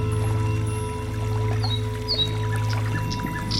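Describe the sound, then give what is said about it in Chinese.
Steady lapping and trickling of flowing water rocking a small boat, with a constant low hum and a few faint bird chirps scattered above; no one speaks. “流动的水带动着小船，我的身体随着小船。轻轻的摇晃”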